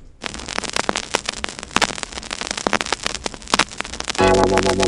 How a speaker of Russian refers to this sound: Знакомый треск в эфире. Не пугайтесь, это нормальное состояние винила.